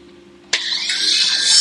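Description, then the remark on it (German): A loud, harsh high-pitched screech of an angle grinder (Flex) sawing into material starts abruptly and keeps grinding steadily, over a low mechanical hum, with no voices. “Oh, er wird gesägt. Oh, guck mal hier. Hier ist, eine, ist, das, eine Flex, das ist eine Säge.”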